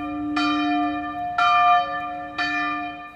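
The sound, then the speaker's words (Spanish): Three church bell strikes, rung by Minim friars, ring out about a second apart, each with a sharp onset and a long, shimmering harmonic decay that overlaps the next. No voices are present. “Los frailes mínimos hacen sonar las campanas.”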